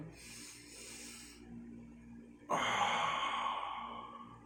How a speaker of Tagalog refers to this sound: Mupo ka, Ikalma mo ang sarili mo, close your eyes. Inhale, exhale, inhale, exhale. Mabagal lang.